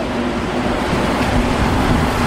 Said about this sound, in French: Ce son, là, juste l'odeur du métro de Montréal. Tu sais qu'il y a une odeur, le métro de Montréal, t'as jamais remarqué?